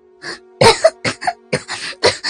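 A person coughs in a rapid, ragged string of about six or seven harsh, breathy bursts, fairly loud and uneven in rhythm, with no talking.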